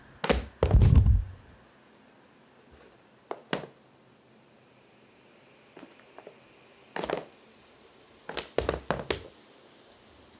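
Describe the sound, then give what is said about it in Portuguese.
Sneakers thump on a bedroom floor at night: one heavy, booming impact first, then sparse softer knocks and a quick cluster of light thuds near the end, against a quiet, faint hum. “como se fosse um barulho de tênis, alguma coisa do tipo.”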